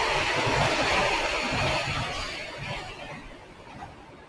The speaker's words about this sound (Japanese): ああ、電車がうるさい。